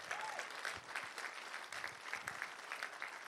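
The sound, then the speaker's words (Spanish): A church audience claps steadily, giving loud applause to Jesus, dense overlapping applause for a few seconds without pause, with no voices rising above it. “Vamos, a dar un aplauso fuerte a Jesús.”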